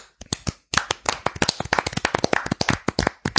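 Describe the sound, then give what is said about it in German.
Several people clap their hands as a tribute applause in place of a minute's silence, a quick, uneven burst of sharp, loud claps that overlap into a dense patter lasting a few seconds, with no voices. “Eine Minute klatschen.”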